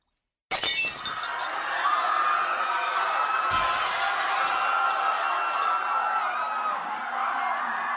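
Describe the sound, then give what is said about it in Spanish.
A chaotic rioting crowd in the centre of Mestitlán roars without letup, a dense wall of noise that police officers cannot control, and around the middle a loud crash of breaking glass cuts through the din. “Como la gente puede escuchar, es un completo caos en el centro de Mestitlán.”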